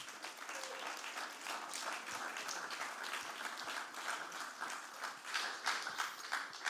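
Sustained applause from an audience for a man who was recently baptised, dense overlapping claps filling the whole stretch at a steady, fairly loud level, with a slight swell toward the end.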